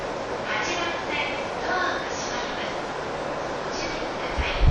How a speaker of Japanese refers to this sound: お待たせしております。27分発東京線快速の川越駅です。まもなく発車いたします。ご乗車の方でお待ちください。